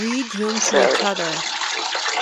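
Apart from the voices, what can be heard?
running water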